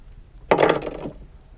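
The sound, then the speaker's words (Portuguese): One leaf of a box truck's two-leaf rear door, with a rectangular glass window, swings open in one short scraping creak lasting about half a second, then quiet returns. No one speaks. “Ele abre uma porta, a outra”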